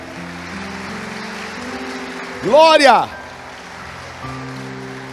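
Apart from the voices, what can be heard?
audience applauding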